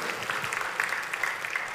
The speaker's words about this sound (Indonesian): Tepuk tangannya boleh yang paling meriah buat Tuhan kita.